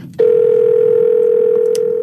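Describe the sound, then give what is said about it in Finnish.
A steady telephone tone of an incoming listener call to a radio phone-in starts abruptly after a brief moment of low background noise and holds at an even pitch and loudness, alone. “Terve ja hienoa, että uskallat soittaa.”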